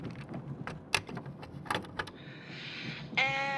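Plastic clicks and rattles as a mixtape cassette is pushed into a car's tape deck, followed by a short motorized whir as it loads, then music starts playing.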